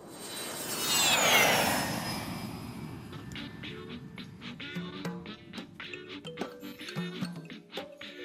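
An airplane roars past, its engine noise and high whine swelling to a loud peak in the first two seconds, then dropping away as scattered quieter sounds take over.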